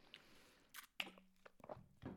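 A quiet sip of water: a few wet slurping and swallowing sounds with soft clicks from the mouth, spread over a couple of seconds with no talking.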